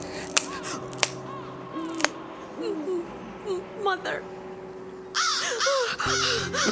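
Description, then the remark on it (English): A crow caws repeatedly, harsh calls growing louder and denser toward the end, with a few sharp clicks early on and a low steady hum underneath. “crow swept down from the night and plucked the worm from Mary's mother's eye”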